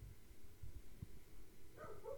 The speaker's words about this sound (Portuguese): Nossa, o cachorro voltou a latir, meu.